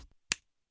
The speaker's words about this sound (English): Okay, so the first one that sounds like this is the shoulder slap.